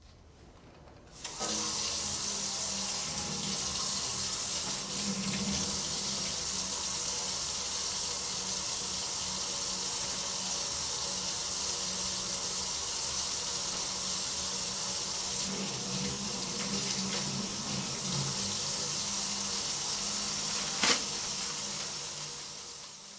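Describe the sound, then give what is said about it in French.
A sink tap runs steadily in a broad, even hiss of water for about twenty seconds while a nurse washes her hands beneath it before giving a subcutaneous injection, with faint splashing shifts and a brief sharper knock near the end. “L'infirmière se rend au lavabo et se lave les mains.”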